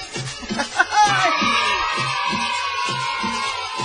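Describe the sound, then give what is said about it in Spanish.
A crowd bursts into loud applause and cheering for the driver of a colectivo, with a few high whoops rising over the steady clatter of clapping that continues to the end. “Un aplauso a todos para el chofer, por favor, ahí del colectivo.”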